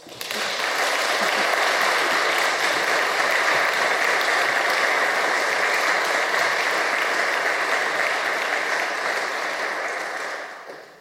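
An audience in Frosta church claps steadily and loudly for about ten seconds, a dense sustained wash of applause that swells in quickly and tapers off at the end, with no talking over it.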